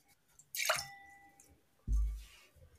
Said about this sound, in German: die spült ihr Glas mit Wasser aus.